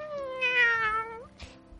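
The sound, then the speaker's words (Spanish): A single drawn-out meow from Martín the cat, clear, holding a steady tone before sliding down at the end, followed by a short soft rustle. “¿Cómo puedo ayudarte? Le dijo maullando.”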